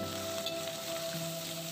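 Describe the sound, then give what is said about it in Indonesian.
Food sizzles steadily in a hot pan while someone cooks, a continuous crackling hiss with a faint hum underneath, moderately loud, with no one speaking. “Tolong cuci piring sebanta sambil ngelawan Uni masak.”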